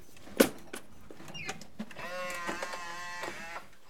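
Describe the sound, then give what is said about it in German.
The automatic front door of a house shared by several residents opens with a sharp click, then a steady whirring motor hum with tonal harmonics runs for a couple of seconds, moderately loud, with no voices. “Oh, eine automatische Tür.”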